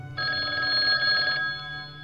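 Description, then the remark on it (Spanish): An old-style telephone bell rings at the United States chess federation in one sustained burst of about a second, bright and metallic with a rapid trill, then stops, leaving a low hum underneath. “Estados Unidos preparaba a sus jugadores para competir y sonaría el teléfono en la Federación de Ajedrez Norteamericana.”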